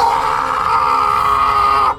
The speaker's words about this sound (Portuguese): Ramanujan soltou um grito indizível da sua boca de lobo